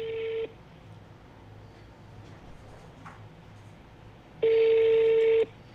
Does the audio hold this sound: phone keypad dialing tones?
yes